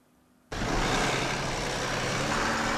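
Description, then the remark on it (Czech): After a brief quiet moment, loud, steady road noise of vehicles driving over a railway level crossing in the Pelhřimov district, Czech Republic, in the afternoon: a broad rumbling roar with engine drone that holds to the end, with no voices. “Odpoledne už vozidla přes přejezd Upacova na Pelhřimovsku volně projížděla.”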